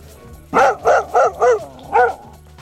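A dog barks five times, four quick loud barks in a steady run, then a brief pause before a final bark, with no one talking.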